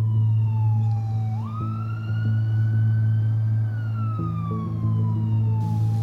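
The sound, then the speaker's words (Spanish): An ambulance siren wails loudly, its tone slowly rising and then gliding back down over a steady low engine rumble, with no voices. “Afortunadamente, los paramédicos llegaron en solo 8 minutos.”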